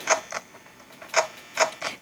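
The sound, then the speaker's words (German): A video game security camera failure sound, signalling that a camera has cut out: a handful of sharp, mechanical clunking clicks in loose pairs, moderately loud, with quiet gaps between them and no voices. “Wenn man dieses, dieses hört, dann ist eine Kamera abgebrochen. Oder dann fallen alle aus.”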